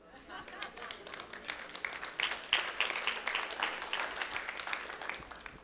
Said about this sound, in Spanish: Eso es, digno de un aplauso ahí.